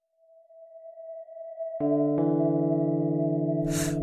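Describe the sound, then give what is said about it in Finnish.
The rotating machinery of a lighthouse lamp hums with a steady tonal whine that swells, gains a richer layered drone partway through, and ends with a brief hissing burst, while drizzle falls outside. “Tässä hiljaisuudessa majakan valolaitteen pyörivän koneiston myös kuulee.”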